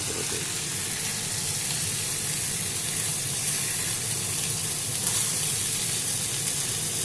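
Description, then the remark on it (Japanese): Chicken and vegetables (cabbage and mushrooms added to the frying chicken, cooked in the chicken's own fat) sizzle steadily in a pan, a dense, even crackling hiss that holds at a constant loudness throughout with no voices. “鶏肉を焼いてたところに野菜を導入することでですね若干の蒸し焼き効果もあるような形ですかね。”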